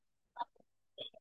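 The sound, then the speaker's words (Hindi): Two short, muffled sneezes about half a second apart, each a quick burst with a snorting edge, faint against a quiet background. “God bless you”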